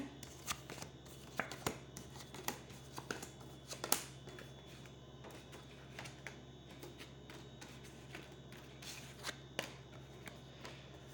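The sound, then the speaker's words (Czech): Playing cards being shuffled during a card reading, a steady run of soft, rapid flicks and riffles lasting several seconds, with a few sharper snaps along the way and no voices. “A já už se dívám na vaši fotku, míchám u toho karty a podíváme se teda spolu, jak se bude barvit to období 2022.”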